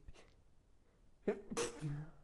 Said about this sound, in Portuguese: Ai, espirrei. Não, eu ia parar, mas não deu tempo. Gente, me perdoe pelo espirro. Mas é, espirrar é humano.